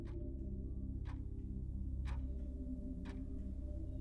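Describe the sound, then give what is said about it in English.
An ebony clock standing in a hall ticks steadily, about once per second, each tick a crisp, distinct click over a low, constant hum in the background. No voices are present. “And anon, there strikes the ebony clock which stands in the hall”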